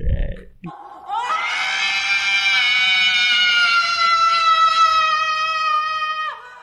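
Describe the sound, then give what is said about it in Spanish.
After a short low grunt, a loud, shrill horror-game jumpscare scream blares for about five seconds at a steady, piercing pitch, then cuts off abruptly. No one speaks over it. “El grito. Daniel, o ese es el grito.”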